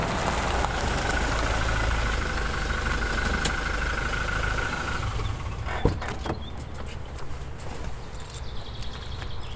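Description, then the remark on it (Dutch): A Rijkswaterstaat road inspector's vehicle pulls up with a steady, loud engine rumble, then settles into a quieter idle, with a single clunk partway through. No one speaks. “Volgens mij komt hij al aanrijden.”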